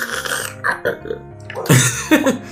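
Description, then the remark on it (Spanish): A voice imitates a hummingbird sipping through a tube, making a string of throaty gurgling and slurping bursts, some almost like burps, with brief pauses between them. “Así hacen los colibríes.”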